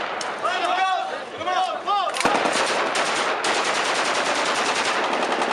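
A couple of seconds of high, warbling bird chirps, then rapid, loud gunfire erupts as birds are shot in a courtyard where expensive vehicles are parked, continuing as a dense, continuous barrage of shots until the end.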